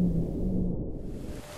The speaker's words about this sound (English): This is the sound of a propeller from a boat.